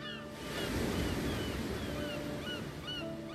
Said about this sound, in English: As she views the crashing waves of the sea, a dark ship approaches.